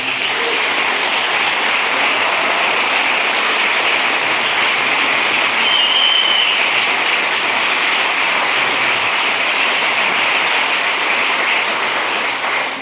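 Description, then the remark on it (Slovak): Sustained applause from a large crowd at a wedding celebration, practising applause for the newlyweds: a dense, steady wash of clapping that holds at full volume for about thirteen seconds, with no talking over it. “Um, dokonca môžeme si natrenovať potlesk teraz, takže...”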